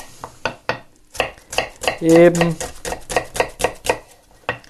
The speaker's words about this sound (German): in feine Würfel schneiden. Ihr könnt auch, wenn ihr so ein Zip, Zip, zillis heißen die, dann könnt ihr die nehmen.